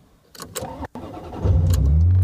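A Ferrari 355 GTB sports car engine cranks briefly with the starter, then fires and settles into a loud, deep rumble that fills the rest of the short recording. No voices.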